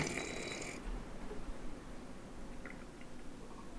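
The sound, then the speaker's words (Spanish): An air conditioner blowing cold air runs with a steady, low mechanical hum and airy whoosh, opening with a brief brighter hiss before settling into a constant drone at moderate volume, with no voices. “¿Qué prendí el clima.”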